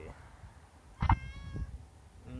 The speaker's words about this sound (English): Meow. Oh, there's a kitty.